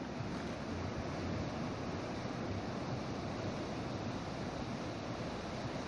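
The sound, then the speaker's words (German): Ocean waves wash steadily onto a beach in a continuous, dense roar of surf, with some wind noise mixed in and no voices, under a sunny, cloudless sky. “schon auf dem Weg rauf werde ich mit einem unglaublichen Blick auf einen weiteren Strand belohnt, an den der Ozean gleichmäßig seine Wellen spült.”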